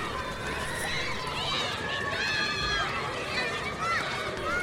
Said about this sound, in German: Oh, ich höre Kinder spielen. Na klar, wir kommen an einer Schule vorbei.